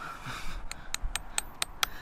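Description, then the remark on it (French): A hammer drives a nail into a crack in a white limestone cliff to install a new survey plot marker, with about eight sharp, ringing metallic taps in a quick, steady rhythm, following a short rustling noise. No one speaks. “Donc on utilise un clou et un marteau.”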